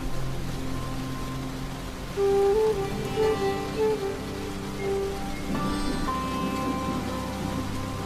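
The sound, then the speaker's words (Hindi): Steady rain patters on peepal leaves outside a window during the rainy season in a continuous, even hiss, with soft musical tones rising briefly over it partway through. No one speaks. “बरसात के यही दिन थे खिड़की के बाहर पीपल के पत्ते इसी तरह नहा रहे थे”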